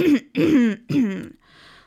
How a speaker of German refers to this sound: Der Frosch aus Kyoto räusperte sich ein paar Mal, ehe er antwortete.